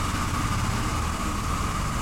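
A heavy engine drones steadily with a low rumble and rattling as a tractor hauling a very long trailer passes by on a road, continuous and fairly loud without any talking.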